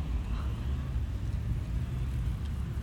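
A car engine idles, a steady low rumble that holds evenly for a few seconds with no voices over it.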